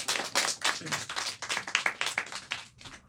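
An audience breaks into applause, a dense wash of many hands clapping steadily with sharper individual claps standing out, moderately loud and sustained for about three seconds.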